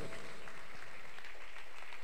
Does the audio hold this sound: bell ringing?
no